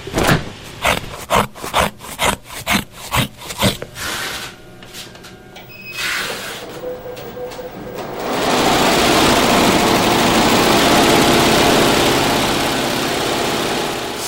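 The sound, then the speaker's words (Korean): A quick, even series of about ten crisp snips, like scissors cutting through material, then a short pause before a sewing machine starts up and runs with a steady, loud whir. “뭐 가위질 소리 같기도 하고 마지막에 이렇게 재봉틀 칙하 소리도 나는 것 같고.”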